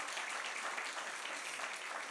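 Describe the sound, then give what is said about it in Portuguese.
A crowd claps steadily for God, dense overlapping handclaps forming a continuous, even wash of applause with no voices standing out. “Dá uma salva de palmas a Deus nesta hora.”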